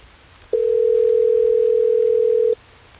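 A steady, continuous telephone dial tone hums loudly for about two seconds as a call is placed on the Hot 101.5 radio show, starting and stopping abruptly, with faint low background noise and no talking.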